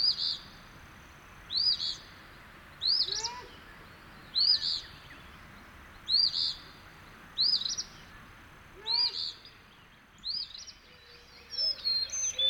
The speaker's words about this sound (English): And there's the great horned owl, still looking for a handout.